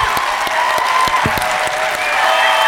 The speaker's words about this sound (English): Let's give it up for our speaker, Nancy Pelosi.